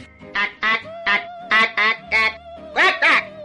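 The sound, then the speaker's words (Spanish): A squawking alien voice effect: about eight harsh, nasal, duck-like squawks in quick, uneven pairs, loud, over a faint steady background hum. “pusieron el cachondeo y al final se le quedó ese sonido a, los extraterrestres”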